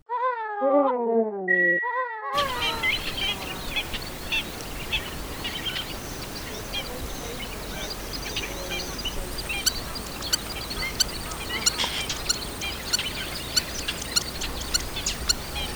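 Spur-winged lapwing calls: a brief run of loud, sharp, falling cries, then a busy outdoor backdrop of steady noise with many short, scattered calls repeating through it.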